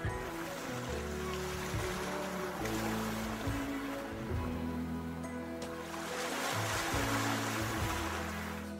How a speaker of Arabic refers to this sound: حتى لو كان البحر هايج صوت موج البحر عنده القدرة على امتصاص غضبك واحتواء زعلك وزرع السكينة والهدوء بقلبك وبعقلك تذكر تذكر لما تكون حزين وغاضب ومحتاج حدا يسمعك ومحتاج تسمع حدا يريحك ما عليك غير تغمض عيونك وتسمع صوت أمواج البحر